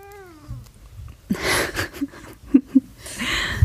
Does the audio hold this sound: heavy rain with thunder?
no